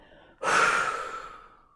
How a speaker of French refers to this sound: inspirez profondément pour vous dynamiser. Et soufflez fortement.